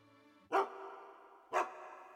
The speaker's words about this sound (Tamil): அந்த வழியாக ஒரு நாய் ஒன்று வந்தது வந்த நாய் தன்னுடைய மோப்ப சக்தியால் ஒளிந்து கொண்டிருக்கின்ற இந்த வார்த்தை பார்த்தது பார்த்த நாய் தன்னுடைய பற்களை எல்லாம் காட்டிக்கொண்டு என்று முறைத்தது